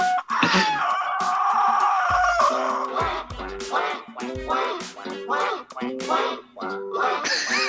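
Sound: duck quacking sound effect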